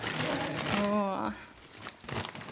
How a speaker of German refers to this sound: Ich habe auch noch was mitgebracht. Ja. Ich kram es mal aus meiner riesigen Ikea-Tüte.